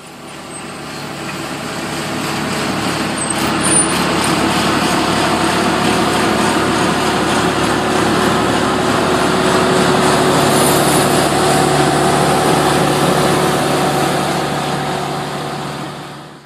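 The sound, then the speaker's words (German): A pressure washer runs without pause, a loud, steady motorized drone with a harsh hiss and a faint whine on top, holding the same level from start to finish with no voices. “Es könnte ein Kercher sein, ich bin mir aber nicht ganz sicher.”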